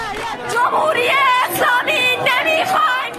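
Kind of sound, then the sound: crowd, protest crowd chanting slogans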